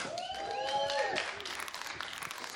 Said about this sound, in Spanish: Por favor, reciban con un fuertísimo aplauso a Sara Silva.